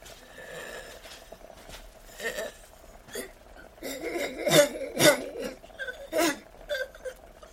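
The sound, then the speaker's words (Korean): A wife coughs in a fit of harsh, irregular bursts in a gloomy room, choking on rising phlegm, with strained, wheezy breathing between them, growing louder midway before easing off. It sounds fairly quiet, with no talking. “우중충한 방에서는 아내의 가쁜 숨소리가 들린다. 쌔, 쌔 하다가 까무러지게 콜록거린다.”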